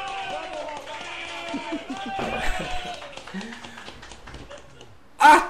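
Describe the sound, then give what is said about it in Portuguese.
Scattered claps ring out beneath loud, excited voices shouting and cheering, building into a crowd's applause for a guest being called in, ending with a brief, sharp burst of noise. “Salva de palmas pra ele!”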